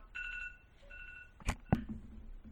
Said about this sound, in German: Ja, das war jetzt mein Wecker.